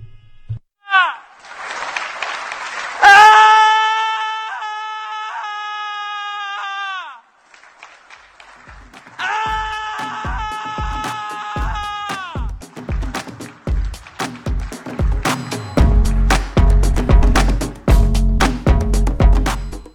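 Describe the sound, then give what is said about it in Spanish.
A male actor screams in two long, loud, high-pitched held yells with a short pause between them during a 2021 performance at the European Parliament, followed by a run of sharp clapping or banging sounds that grows denser toward the end. “Eh, este es un actor pegando gritos en un acto cinematográfico del 2021.”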